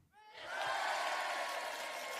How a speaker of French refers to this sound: Donc bravo à toi, on peut l'applaudir.